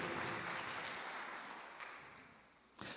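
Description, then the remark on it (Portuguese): A church audience applauding the Lord: a dense, steady wash of clapping that gradually softens, then swells briefly again right at the end. No one speaks over it. “Aplauda ao Senhor, glorifique o nome dele.”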